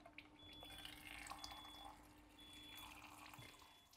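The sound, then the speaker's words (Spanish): Water at 11.5 streams steadily from the top spout of a water ionizer for several seconds, a continuous splashing flow with faint dripping, and no one speaking over it. “Entonces acá vamos a usar el agua 11.5, que vamos a sacar, va a salir 11.5 por arriba y vamos a ver qué es lo que sucede.”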